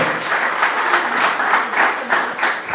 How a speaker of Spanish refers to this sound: Denle la aplauso al Señor esta mañana, por favor.